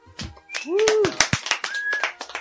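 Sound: applause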